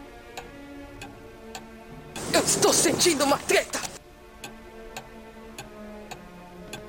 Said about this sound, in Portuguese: Tic-tac, tic-tac. tic-tac, tic-tac.